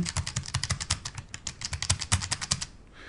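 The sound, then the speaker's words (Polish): Rapid, loud clicking of braille keyboard keys pressed all the way down, a dense rhythmic clatter of many keystrokes over a few seconds, with no talking. “Na górnej powierzchni mamy od góry klawiaturę brailleowską, dość klikającą, dość hałaśliwą, choć właśnie stwierdziłem, że tej klawiatury nie musimy dociskać aż do końca, bo gdybyśmy chcieli do, dociskać do końca, to e, odgłos byłby mniej więcej taki.”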